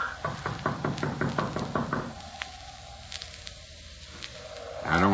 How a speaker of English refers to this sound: We gotta let Doc know we're here somewhere or other. I reckon it won't hurt nothing to tap on the door sort of general.